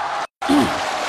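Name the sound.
audience applause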